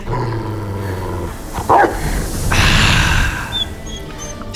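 A black dog growls low and steadily, then breaks into a few loud, harsh barks, with a rough snarling texture between the outbursts.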